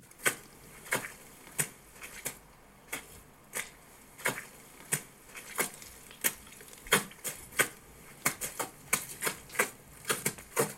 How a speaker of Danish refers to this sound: Og, og, og så har han gået en tur med sine gummistøvler, og der har jeg simpelthen taget hans trin og øh, justeret dem, så de passer rytmisk, så det ligesom giver en form for rytme, og det lyder sådan her.